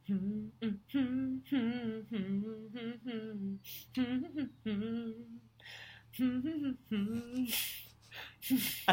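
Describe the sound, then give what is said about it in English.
A person hums a pop Christmas song melody in short, bouncy phrases with rising and falling pitch, ending with a few breathy, laughing bursts. “I don't think you're going to get this, and I'm definitely going to hum it really wrong.”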